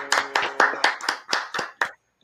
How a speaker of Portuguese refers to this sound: Aí, uma salva de palmas é pro Camilo.